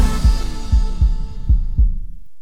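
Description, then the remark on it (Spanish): A deep, booming heartbeat sound effect thumps five times in a steady lub-dub rhythm, loud, fading out at the end with no voices. “un solo latido que se escucha en todo el mundo.”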